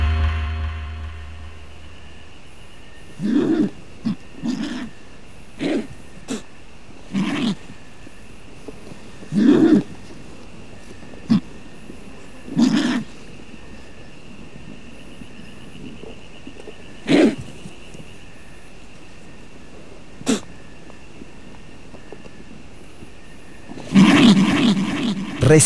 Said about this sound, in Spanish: Vamos a escuchar al cóndor de California.